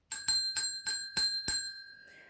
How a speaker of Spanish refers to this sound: Viene el timbre vamos terminando